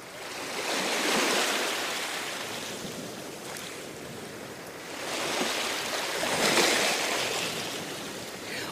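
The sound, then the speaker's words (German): Ocean waves wash onto shore in two broad surges, each swelling into a hissing roar and slowly receding, with steady surf noise between. No voices, just the continuous rush of water. “Lehnen Sie sich mal zurück, schließen Sie die Augen und hören Sie das Meeresrauschen”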